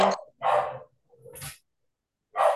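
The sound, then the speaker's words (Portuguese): Dogs bark in a quick, irregular series of about four loud, sharp yaps separated by short pauses, with no talking over them. “Meus cachorros estão enlouquecidos aqui. Não sei se”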